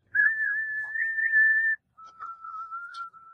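A steady, sustained whistle with an electronic phaser-like sweep, like electronic music, heard at night, holding one long note, then a brief gap before a second, slightly lower note. Clear, with no talking.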